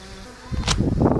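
A small drone's propellers buzz into life, a steady insect-like whine that swells in loudness after a quiet start, with a brief bright burst of noise partway through.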